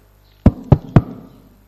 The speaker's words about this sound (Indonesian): Begitu saya datang di depan rumah tidak ada satu orang pun, saya ketuk pintu rumahnya.